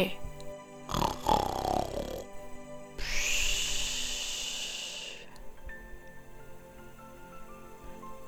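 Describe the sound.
A voice imitates Mrs. Bear snoring as she sleeps in a story: a rough, rattling snort on the inhale, then a long, steady airy hiss on the exhale, followed by quiet.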